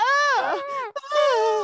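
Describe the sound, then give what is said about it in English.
A voice imitates drawn-out moaning sex noises, a few sustained, wavering 'ah' cries with a brief break in the middle, loud. “like sex noises.”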